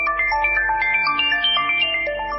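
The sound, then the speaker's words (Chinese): A telephone ringing tone plays during a call that Orin places to Penelope: a bright electronic melody of short, evenly paced notes stepping up and down in pitch, steady and fairly loud, with no voices. “奥林当即打电话给佩内洛普”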